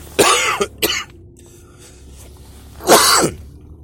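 A loud cough in two quick bursts, a short pause, then a single harsher cough after a moment of quiet. No talking.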